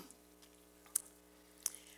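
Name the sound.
sipping water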